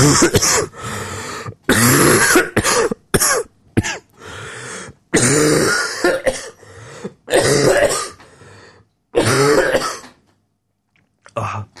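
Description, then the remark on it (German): A man coughs repeatedly and clears his throat in a long run of harsh bursts, separated by brief pauses, ending with a few quieter coughs after a short silence; he has had a bad cough all week. “Deswegen darfst du jetzt eine Minute husten.”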